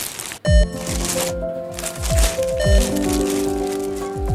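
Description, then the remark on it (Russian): A plastic bag rustles and crinkles steadily for several seconds, with a few soft thumps and a faint tonal hum underneath. “Пакет брать будете?”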